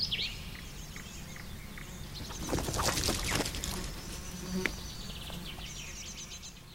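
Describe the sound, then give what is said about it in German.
A small bird chirps in quick, high bursts near the start and again at the end, with a louder rustling, buzzing noise swelling in between. No one speaks. “Hau ab, Piepmatz. Ich bin beschäftigt.”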